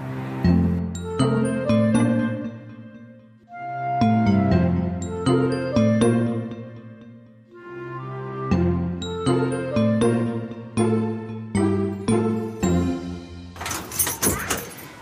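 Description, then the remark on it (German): A tuneful musical passage plays, then gives way to a short, bright jangle of keys for the last couple of seconds, as someone heads behind the scenes at Hellerbrunn zoo. “Man hört wieder einen Schlüssel es geht wieder hinter die Kulissen im Tierpark Hellerbrunn.”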